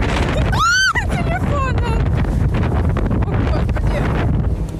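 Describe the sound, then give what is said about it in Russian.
Strong wind buffets the microphone in a steady, loud roar from a boat in the middle of the sea among waves, with a brief voice calling out near the start over the rushing noise. “И мы просто посреди моря, непонятно где, волны.”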